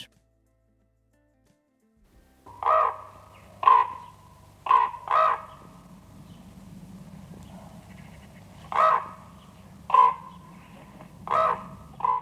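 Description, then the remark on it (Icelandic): About eight loud, harsh common raven calls come in irregular pairs and singles over a steady low hum, with no one speaking. “Við erum að tala hér næstu mínutur um rafn, um rafnin.”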